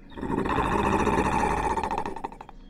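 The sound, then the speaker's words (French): A deep, rumbling gray wolf growl swells and holds for a couple of seconds, loud, with a rough snarling texture before tapering off in a few ragged pulses. “Pétrifiés, les enfants voient un loup gris gigantesque sortir du portail les babines retroussées, la bête les sonde d'un regard sévère.”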